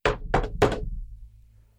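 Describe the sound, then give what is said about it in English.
A landlord knocks three firm times on a wooden door of a 400-square-foot studio in quick succession, fairly loud, with a low resonant thud under each and a brief fading ring afterward. “all of a sudden, I get the knock at the door”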